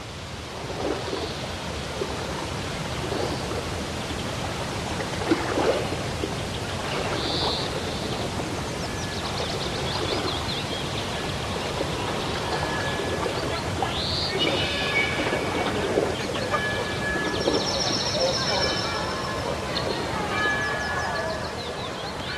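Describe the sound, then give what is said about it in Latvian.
Gentle waves of the Irbe River lap and wash steadily and continuously, a soft, even water sound with small splashes, and faint high chirps drift in now and then; the opening sound of director Andrejs Verhaustinskis's documentary film Lidija. “Ar šo kluso mierīgo irbes upes viļņu šūpošanās skaņu sāks režisora Andrēja Verhaustinska filma Lidija.”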